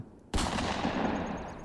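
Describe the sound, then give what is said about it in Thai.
A sudden, loud gunshot blast erupts after a brief quiet moment and trails off into a long, noisy echoing tail. No one speaks. Two shots are fired in quick succession from a gun whose muzzle is pressed into a pillow laid over the back of a person's head. “แล้วก็ปักปากกระบอกปืนกับหมอน ลั่นไกสองนัดซ้อน”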